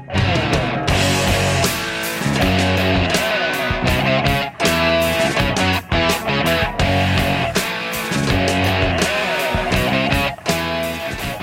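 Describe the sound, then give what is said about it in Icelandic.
A loud, full-band rock song plays throughout, with a steady driving drum beat locked to a chunky distorted guitar riff over bass, dense and continuous with no talking. “Heyri taktin hjá hann hvernig hann fer með gítarriffinu virkilega flott”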